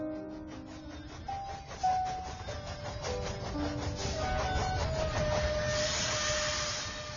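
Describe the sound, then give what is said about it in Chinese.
A train carrying passengers back home rolls along the rails, with a continuous low rumble, rhythmic clacking of wheels, and thin, shifting metallic whines drifting over the top. No one speaks. “我们一起坐上火车回去，旅客静静的看着我，我侧望着窗外飞逝的景色，想着妈妈曾经多少次坐火车看我时，欣赏过同样的风景。”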